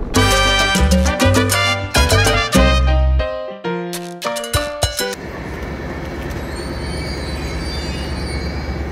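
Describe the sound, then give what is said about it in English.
Loud rhythmic bursts of harmonic, horn-like tones give way after a few seconds to a steady, rumbling roll of a train moving along the rails in Yarmouth, with no talking. “What we're going to do is, is the, the, front of the train facing that way, very nice, facing out.”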